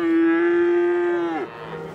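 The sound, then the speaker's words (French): A cow lets out a single loud, steady moo lasting over a second, its tone dropping at the end, with no talking over it; several cows are there. “Derrière la vache derrière les vaches qu'il y a là, il y a les, poulets de louer.”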